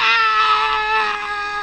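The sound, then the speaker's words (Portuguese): A person lets out a loud, sustained scream lasting under two seconds, a strained, wailing voice imitation with a harsh, cat-like quality and no other talk, sent as a voice message. “eu mandei uma mensagem pra ele chamando ele, ele fez um áudio de 20 segundos gritando no áudio.”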